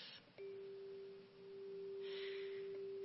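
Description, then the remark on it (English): A single hand chime is struck once, ringing out a clear, pure tone that sustains smoothly for a few seconds over faint background noise and soft breathing. “We have the handbell choir uh, ringing this morning, and in addition to our beautiful Whitechapel bells, we now own four octaves of hand chimes, which look like this and sound like this.”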